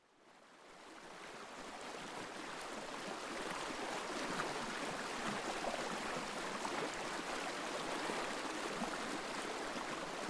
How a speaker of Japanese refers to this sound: 川のせせらぎが聞こえた環境音楽です